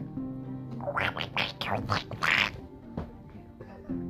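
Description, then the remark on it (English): A voice imitates the cartoon duck Donald Duck, producing a rapid, raspy, gurgling string of quacking syllables for a few seconds, loud, with no clear words. “I-, I think you're more of a Donald Duck.”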